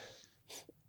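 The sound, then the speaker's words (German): A single short sneeze bursts out with a sharp, hissy blast, followed by a brief softer catch of breath, against an otherwise quiet background with no talking. “Ey, Gesundheit.”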